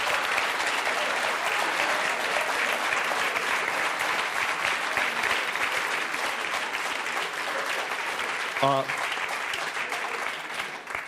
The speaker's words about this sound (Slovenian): to meni nič ne pomeni, če meni ploskate, ampak po prirediti, če boste oba protagonista, direktorja srečali, ploskajte pred njima, kakšno urco, dve, bosta se števala in bo veliko laže.